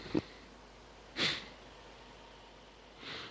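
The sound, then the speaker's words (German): Three short, muffled coughs spaced out over a few seconds, fairly quiet, with near-silence between them and no talking. “Moment, ich muss mal eben kurz husten.”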